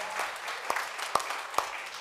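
An audience applauds God with a steady wash of fairly soft clapping, a few louder individual claps standing out at regular intervals.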